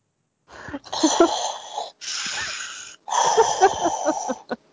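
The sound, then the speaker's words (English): Heavy, raspy breathing into a microphone on a call: three long, loud breaths with short pauses between, sounding harsh and wheezy, with no talking. “I'm hearing someone breathing. Darth Vader, are you on the call?”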